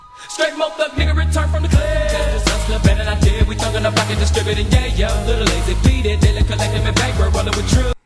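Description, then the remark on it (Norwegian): An old-school rap track plays loud: after a brief intro, a heavy bassline and punchy, steady drum hits kick in beneath a bright, synthetic melody sampled from a Sega video game. “Det er et spillsample baki der. Det er et spill, og ja. det er rett og slett fra Eternal Champions ah. fra Sega.”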